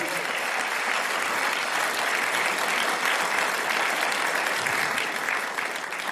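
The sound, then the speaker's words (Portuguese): An audience breaks into a strong round of applause, a dense, steady wash of clapping that holds at an even loudness for several seconds before easing slightly at the end. “Para todos os cidadãos do céu que estão aqui, dê uma forte salva de palmas, amém?”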